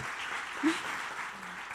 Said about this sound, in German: Ihr dürft klatschen. Danke.